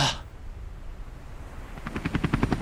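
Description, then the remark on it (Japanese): A helicopter approaches: a low rumbling hum gives way to a rapid, steady thumping of rotor blades that grows louder toward the end, with no voices. “ヘリでお迎えには行きませんがあなたのトラブルに迅速対応”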